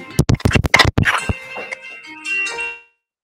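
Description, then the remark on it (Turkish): A phone rings: a quick burst of bright, metallic clanging strikes gives way to a sustained electronic ringing tone that fades out, loud, with no one talking. “evet telefon çalıyor. Telefon çalıyor.”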